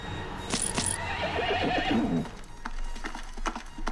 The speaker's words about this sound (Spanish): El caballero negro espoleó a su caballo, que empezó a galopar.